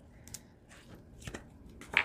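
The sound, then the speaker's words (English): Paper being handled and shaped to make a little edging, with a few short, crisp rustles and crinkles, quiet at first and sharper toward the end, without any talking. “Now, another way to deal with these edges, um, if you are um, on edge alert, you can make um, little edging to your paper like this.”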